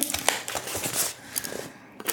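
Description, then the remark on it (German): A blade slits packing tape on a square cardboard box while unboxing a mailed record: a run of dry, scratchy tearing and crinkling noises with sharp bursts, pausing briefly near the end before a final rasp. “Ja, ich mache erstmal, ich schlitze erstmal an einem Klebeband vorbei.”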